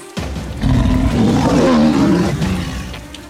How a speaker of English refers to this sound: But this mountain lion will do it, and if I don't get out of here, he'll do me too.